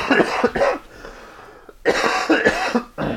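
Harsh, chesty coughing from a person with a heavy cold, in two loud bouts of several rapid coughs each, separated by a short quiet pause, with a final cough at the end; no one speaks.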